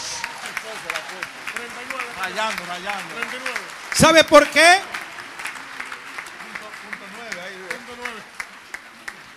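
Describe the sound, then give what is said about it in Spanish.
An audience applauds steadily throughout, giving applause to the Lord for its members under 40 years of age, while a man keeps talking over the clapping, with a brief louder surge of claps and voices partway through. “Vamos, déjale un aplauso al Señor por ellos.”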